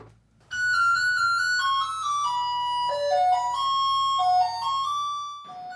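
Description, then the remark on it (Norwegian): An electronic school bell rings in class at a Turkish aid organization's boarding school for boys aged 12–18, set in an old mansion in Mogadishu, Somalia. It plays a short melodic tune: a loud series of sustained, ringing tones stepping down and back up in pitch for about five seconds over a low steady hum. “Det ringer inn på Mogadishus nyestundervisningstilbud for gutter i 12-18-årsalderen.”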